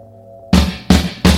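A rock band's first single, recorded in April 1981 at a studio with a producer, starts up: a low sustained hum, then three loud, evenly spaced full-band hits of drums and chords, each ringing briefly before the next. No voices.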